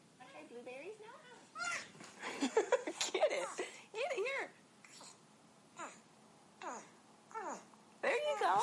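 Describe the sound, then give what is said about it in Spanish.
A prehensile-tailed porcupine named Kimosabi makes a run of high-pitched whining and moaning calls in short, uneven bursts, sounding almost like a fussing baby, with brief pauses between. “Es un puercoespín de cola prensil”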